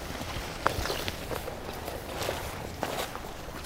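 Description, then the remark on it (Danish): Footsteps trudge along faint, trampled wild boar trails that follow the water's edge, a steady run of soft, irregular crunching steps with a few sharper scuffs standing out and no one talking. “Det er simpelthen vildsvin, der går her, hvor vi, ja, det, vi træsker nu.”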